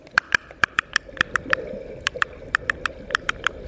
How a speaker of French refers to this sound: Ça, c'est l'expression sonore à huit clics euh, des cachalots du clan du RN Gueule Tordue, qui est le clan de cachalots avec lesquels depuis dix ans nous passons régulièrement du temps et nous les étudions. Et cette euh, veut dire faisons un câlin,